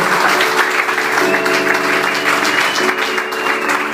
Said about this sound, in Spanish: Dale el aplauso a Cristo en esta tarde, por favor.